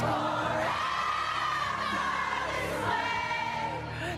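A large crowd sings together loudly in an echoing space, voices blending into a sustained, wavering melody with scattered whoops, continuous for the whole stretch.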